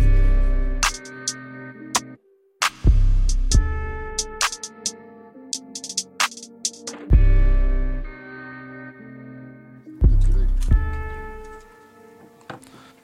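A hip-hop beat plays without vocals: deep booming bass hits land every few seconds under sustained synth tones and crisp ticking hi-hats, with a brief drop near the start before the groove resumes.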